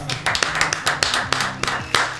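An audience applauds, a dense, steady patter of many hands clapping, punctuated by a few sharper, louder claps, with a faint low murmur running underneath.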